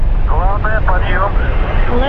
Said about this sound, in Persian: Lift. off of the Soyuz rocket transporting این صدای قررش موشک سایوز TMA 9 است.